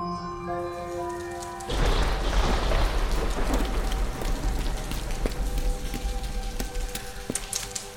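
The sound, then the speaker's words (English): Heavy rain pours down on a cold morning in a dense, steady hiss with a deep low rumble, starting suddenly after a quieter opening of tonal sound; scattered sharp drips and splashes pop through the downpour. “Cold morning. It's pouring.”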